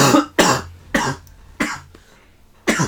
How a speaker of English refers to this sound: Excuse me. I said I have a cold, and my coughs are like uh, howler monkeys.